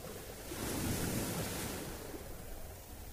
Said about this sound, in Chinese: 海浪一阵一阵的拍打在沙滩上，你最喜欢浪花从沙滩上缓缓退下的沙沙的声音。